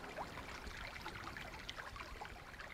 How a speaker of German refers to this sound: Wir essen die Brezen, füllen unsere Wasserflaschen im Sommer hat man eben auch eine Quelle in der Höhle. Man hat auch immer frisches Wasser und solche Sachen.